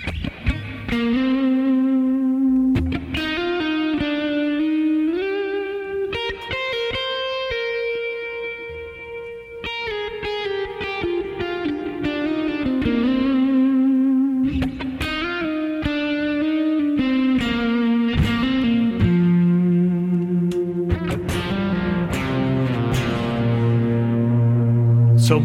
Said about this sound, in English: We can do that now with time based effects, which we've never really been able to do before. So I'll kind of demonstrate a little bit of that with a, uh, a dirty sound and just kind of playing a couple leads.